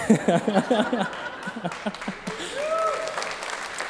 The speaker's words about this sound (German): Danke für den zarten Applaus.